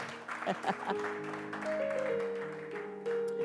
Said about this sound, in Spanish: Dale, dale el aplauso, y se lo va a dar, dáselo, dáselo.